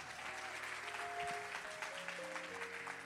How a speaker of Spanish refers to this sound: Si usted lo cree, denle un aplauso fuerte al Señor.